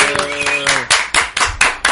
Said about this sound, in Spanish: Ha llegado un aplauso desde Hortaleza. Acabamos de dejar sorda a la audiencia, pedimos disculpas.